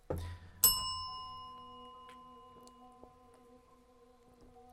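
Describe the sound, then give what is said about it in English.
A single bright bell ding rings out clearly and sustains with a long, shimmering decay that slowly fades over several seconds, with no talking over it. “Hit the bell, please.”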